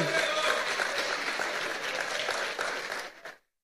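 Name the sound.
applause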